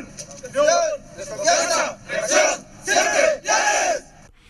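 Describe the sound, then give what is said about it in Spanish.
A large group of US Border Patrol or ICE immigration officers, dressed in military uniforms, shouts in unison to fire themselves up: four loud rhythmic bursts of a chanted battle cry separated by brief pauses, forceful. “Es decir, imagínense ustedes a las autoridades estadounidenses, a la Border Patrol o ICE, que es la policía migratoria em, estadounidense, animándose, todos vestidos de militares, animándose eh, entusiasmándose cuando un comandante les dice”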